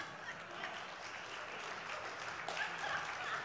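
A church audience applauds steadily for a scripture reader after the Bible reading, a dense wash of hand claps holding at an even level throughout, with faint voices mixed in beneath the clapping.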